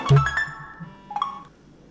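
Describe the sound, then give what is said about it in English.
A FaceTime call ringing with the playtime ringtone, an incoming call dialed from a landline phone to an iPhone: a short, bright electronic melody of sustained chiming notes, fairly clear, with no voices. “That's It's now FaceTime ringing with the playtime theme.”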